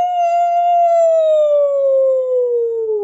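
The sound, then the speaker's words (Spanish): A single long, wavering howl held for about three seconds, its pitch sliding slowly downward at the end. It is loud and sounds like a human voice imitating a wolf. “¿Qué he hecho? aulló el lobo. ¡Aú!”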